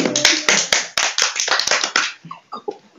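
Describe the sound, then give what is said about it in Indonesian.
A crowd breaks into applause, dense overlapping claps that gradually thin out into a few scattered, fading claps by the end. No one speaks. “Tepuk tangan dong teman-teman.”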